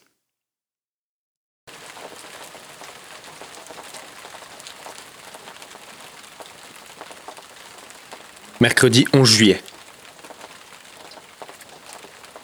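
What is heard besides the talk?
steady rain falling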